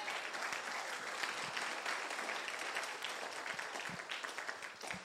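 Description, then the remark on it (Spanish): An audience applauds steadily for Jesus, a dense wash of many hands clapping at once that holds evenly for several seconds without letting up. “Si usted lo cree, denle un aplauso fuerte a Jesús.”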